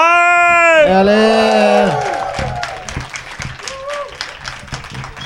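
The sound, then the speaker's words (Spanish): A live crowd erupts in loud, high-pitched whoops and cheers, then keeps up steady, dense applause that fades slightly, with a few scattered shouts near the end. “Se nota conmocionada la audiencia.”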